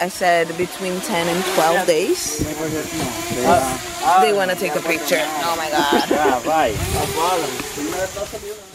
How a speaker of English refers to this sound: that sound you hear is not a swarm of bees. It's a drone.